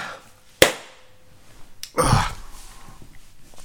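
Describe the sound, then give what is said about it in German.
A sharp click, then a moment later a single loud, breathy sneeze bursts out and trails off into quiet breathing. Nobody speaks. “Entschuldigung, Gesundheit, danke.”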